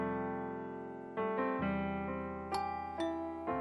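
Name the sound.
doorbell ringing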